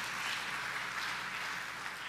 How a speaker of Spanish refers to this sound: Dele un fuerte aplauso a nuestro Señor, estimados hermanos.